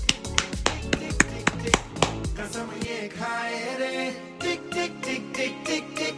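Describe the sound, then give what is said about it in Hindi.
A school audience claps rhythmic claps in steady time for a couple of seconds to celebrate the school's Best Educator Award at the Global Sustainability Awards, then a sung tune takes over, with sharp percussive hits continuing in the background. “तो इसी बात पे अब बजाओ ताली”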